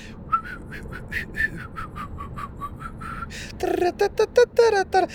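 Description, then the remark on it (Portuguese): Someone whistles a lively, bouncy melody in short rhythmic phrases, breathy at first and then louder, clearer notes toward the end, with no talking. An older man whistles a song from his youth, an old dance-hall tune, after getting up in the morning. “Outra cena que eu reparei é o pai da Irina quando se levanta de manhã, o gajo, uh, ele, ele começa a assobiar e ele assobia músicas da sua época.”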